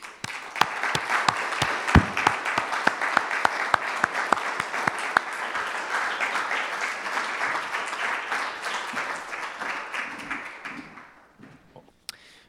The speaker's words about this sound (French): de simplement offrir un concert d'applaudissements au Seigneur. Donc tout simplement, en anglais on dit a clap offering, donc un offrande d'applaudissements.